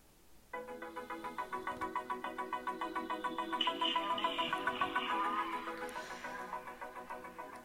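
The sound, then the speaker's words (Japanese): A bright, tonal jingle starts after a brief pause, with a steady pulsing rhythm of repeated notes that swells slightly in the middle and plays on without any voices. “さあ音楽を流さずもうすでにあの時間が半分ぐらい過ぎてしまいましたがちょっとここで音楽流してみましょうかスタートです。”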